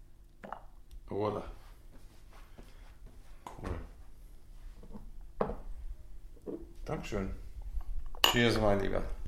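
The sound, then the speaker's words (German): Irregular clinks of cutlery against plates and dishes, scattered sharp taps spread throughout, with a brief murmur of voice near the end. “Das Klimpern nehmen wir vielleicht auf.”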